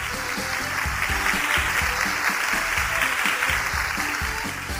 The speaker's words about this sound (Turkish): Doğru. Alkışlayalım o zaman